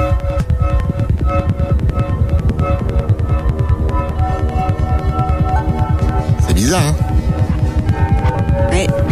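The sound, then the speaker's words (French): Muffled music made from recorded sounds of an unborn baby's movements in the womb, transformed and mixed, with a steady throbbing heartbeat pulse beneath it and occasional watery gurgling whooshes. A voice briefly speaks over it. “C'est un peu hypnotique et, bizarre avec le, battement de cœur et les, glouglou On a l'impression d'être dans une autre dimension en fait.”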